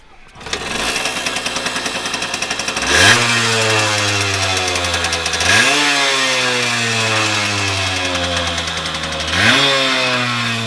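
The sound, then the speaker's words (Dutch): A small two-stroke Kreidler moped engine, its block fully rebuilt, starts up and runs steadily with a buzzy, rattling tone shaped by resonance in the tank, blipped three times so the pitch rises sharply then slowly sags back to idle. No talking. “De meeste mensen die dus de kruidler kennen, die, zullen, die hebben het al lang gehoord.”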